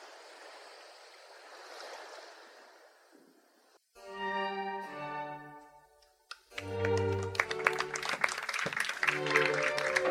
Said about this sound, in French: En voulant le reposer sur la table, il lui échappe des mains et se brise par terre. Des applaudissements et quelques ricanements s'élèvent des tables voilées.